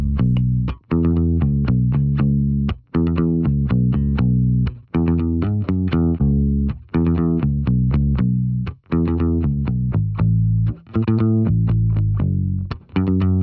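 An unprocessed bass guitar plays a repeating riff of punchy low notes in a steady rhythm, with brief gaps between phrases and no voices, loud throughout.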